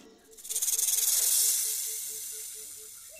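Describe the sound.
A snake hisses in one long, breathy burst that swells quickly, holds loud, then slowly tapers off, with a faint rhythmic pulsing underneath and no talking.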